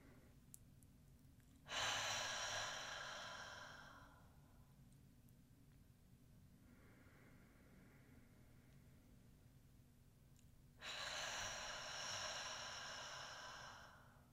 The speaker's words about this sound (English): And you're just going to breathe in through your nose and out through your mouth. And you want to make kind of like the sound of the ocean at the back of your throat. So we'll just do five breaths like that.